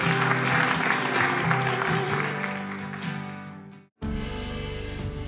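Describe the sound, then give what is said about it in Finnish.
A crowd at a Suhe church service bursts into sustained, dense applause for God, with steady clapping for about four seconds, then it cuts briefly to silence before more clapping and music-like tones resume. “Eikö anneta Jumalalle isot aplodit ja lauletaan vielä hänelle.”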